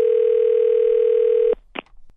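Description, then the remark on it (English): A loud, steady telephone line tone hums for about a second and a half as a prank phone call connects, then cuts off abruptly, followed by a couple of brief clicks on the line. “right now it is the nephew here with today's prank phone call.”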